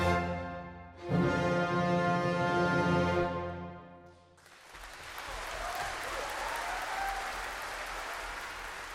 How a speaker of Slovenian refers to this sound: je bil aplavz navdušenega občinstva v Galusovi dvorani po gađevi izvedbi Chopinovega koncerta za klavir in orkester številka 2 v F-molu opus 62